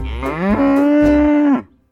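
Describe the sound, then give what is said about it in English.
A single loud cow moo, rising in pitch and then holding a steady bellowing tone for over a second before cutting off, with no other sounds around it. “The butter you put on your toast in the morning comes from cream, which comes from cows.”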